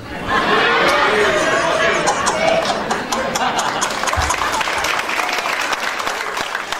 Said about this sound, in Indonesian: saya juga nggak tahu saudara tepuk tangan maksudnya apa. Karena buat saya nggak terlalu esensi tepuk tangan nggak terlalu esensi